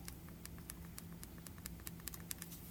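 The menu button on a Zoom audio recorder is pressed over and over, producing a rapid series of crisp plastic clicks at an uneven pace, quiet against a low steady background hum, with no talking.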